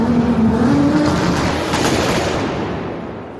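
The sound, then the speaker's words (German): A loud car engine is started with the ignition and roars at high revs with a strained tonal whine, holding steady for a few seconds before gradually easing off, with no speech. “Gib Gas, mal die Leute warten doch. Zündung!”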